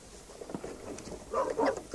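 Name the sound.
dog barking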